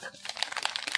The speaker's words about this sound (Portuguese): eu estou realmente passando as páginas dele, cheirando o cheirinho de livro.